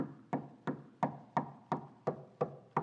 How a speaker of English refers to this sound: Can I tell you, he's standing at the door and he is knocking.